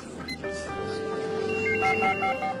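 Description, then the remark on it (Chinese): A telephone rings with a steady electronic tone that breaks into short repeated beeps, over a bustling background of indistinct voices and office clatter in a busy, hectic office workplace. “到达忙碌紧张的办公地点，”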